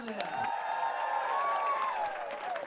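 An audience breaks into applause for a few seconds, steady clapping carried along by a long, sustained cheer from the crowd, fairly loud and close throughout.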